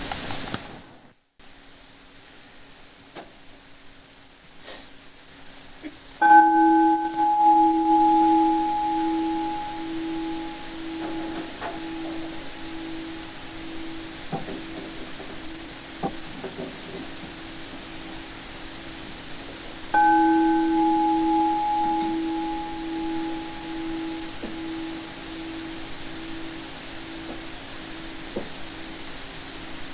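A bell is struck twice, roughly fourteen seconds apart. Each mid-pitched, resonant tone rings on and slowly fades beneath a steady background hiss, with no one speaking.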